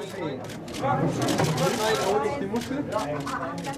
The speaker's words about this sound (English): Video of this is totally ridiculous. It's the clicking of camera shutters, the excited murmur of the gathered media, as an octopus slowly flops into a plastic box.